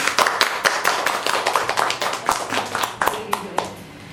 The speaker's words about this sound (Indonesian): Sekali lagi terima kasih Romo Waji. Tepuk tangan teman-teman buat Romo Waji.